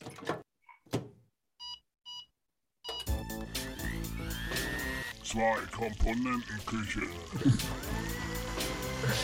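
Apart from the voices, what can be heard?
segment jingle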